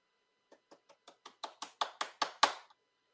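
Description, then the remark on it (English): A drum roll tapped out by hand before the first name is pulled out in a draw: about eleven sharp taps that speed up slightly and grow steadily louder, ending abruptly after a final strong hit, with no talking over it. “can you give me a drum roll, please?”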